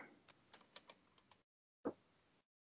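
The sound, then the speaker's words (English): Quiet computer keyboard typing: a quick run of light clicks for over a second, a brief pause, then one heavier key press, probably a final tap like hitting enter. “All right, typing that so down.”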